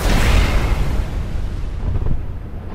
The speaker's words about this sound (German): Schlagwetter, plötzliche Explosionen kosten vielen das Leben. Schuld ist Methan. Das brennbare Gas steckt in der Kohle und wird beim Abbau freigesetzt.